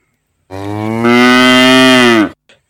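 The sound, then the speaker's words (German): A single long, loud cow moo lasting nearly two seconds, deep and steady with a slight rise midway, heard alone, followed by a faint brief snort. “Hallo Kuh, möchtest du mit mir spielen?”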